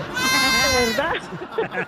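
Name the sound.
goat bleating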